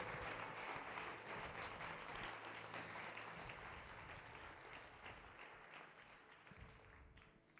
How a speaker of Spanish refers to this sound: Dale un fuerte aplauso al Señor Jesús. Gracias Señor. Gracias Señor.